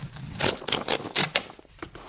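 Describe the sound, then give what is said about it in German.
A parcel being opened: a quick run of about six sharp, rustling tears and cuts, bright and crackly, with no one speaking over them. “Können wir das vielleicht aufmachen, das Paket?”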